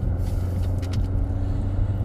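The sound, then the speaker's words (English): Steady, muffled low-pitched engine drone fills a car interior with the windows rolled up, with a constant rumble and a faint brief swish of outside noise partway through. No one speaks. “I'm in a car with the windows rolled up all I can hear is like, what the fuck was that?”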